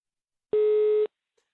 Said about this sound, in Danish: Sorry, reception is not available. Record your message at the tone. When you are finished, hang up or press pound for more options.